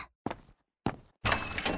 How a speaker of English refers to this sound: Meanwhile, someone was knocking on her door. Who is it?